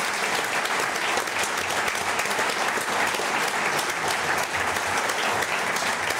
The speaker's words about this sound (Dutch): Ja, als, als het applaus afgelopen is, wil ik eigenlijk over graag weten... is het voor herhaling vatbaar, zo'n live ja, opname?